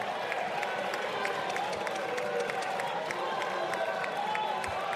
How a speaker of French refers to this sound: Voilà, Adrien Quatennens, qui a donc été applaudi par plusieurs députés de la NUPES, ce qui a indigné le député Renaissance Pierre Cazeneuve.